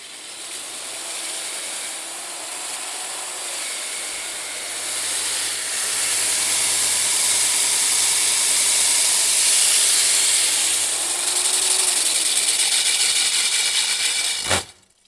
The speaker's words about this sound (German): So hört es sich an, wenn mit einer 150 mm Bohrkrone ein Loch in eine 30 cm starke Decke gebohrt wird. Diese Decke ist ganz besonders, es handelt sich um die letzte im ehemaligen Bestandsgebäude, die für den Neubau abgetragen werden muss.